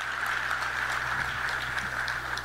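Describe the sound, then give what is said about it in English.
A crowd applauds steadily, a dense wash of many hands clapping at an even level with no voices on top, a sizable audience clapping for news of working on buying an NBA team. “Clap it up for that.”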